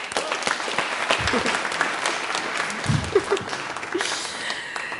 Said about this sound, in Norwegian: Takk skal dere ha. En klapp for de.